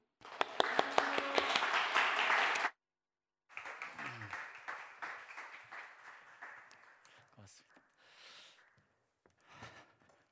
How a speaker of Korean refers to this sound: 정말 마음껏 귀한 말씀 전해주시기를 우리 어, 비는 마음으로 우리 감사의 박수, 경례 박수 목사님 모시겠습니다.